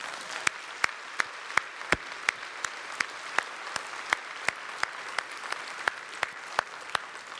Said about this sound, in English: for me to say thanks and for us to appreciate those who are on the setup and, and teardown crew who go and, and you know make that Sunday happen every week in Bay City. So I don't know if you can hear us, but we're gonna clap for you guys, all right?